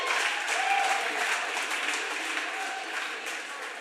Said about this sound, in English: I'm surprised some of you are even applauding because you're still chapped from some losing earlier, right?